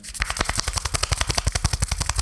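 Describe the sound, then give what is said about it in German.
A voice imitates with the mouth the clapping sound from the film Schuh des Manito, producing a fast, steady run of about twenty sharp, loud pops over two seconds with no other talk. “dieses Klatschen aus Schuh des Manito nachzumachen.”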